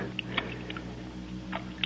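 Bits of dirt knocked off a bank by someone climbing drop into water with a handful of small, irregular plops and splashes, fairly soft, spread over a low steady background rumble with no voices.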